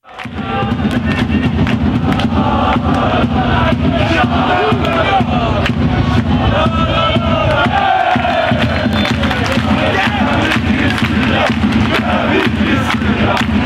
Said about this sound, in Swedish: Men ja, låt oss lyssna på den här eh, futsalsturneringsklacken. Eh, och det gör vi nu.